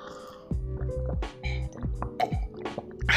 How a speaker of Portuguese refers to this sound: Bom, deixa eu beber água aqui.